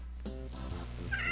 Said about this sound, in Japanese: 猫の声入った入った、聞こえた。おねえ、目の前におんね。猫の名前はみーちゃんです。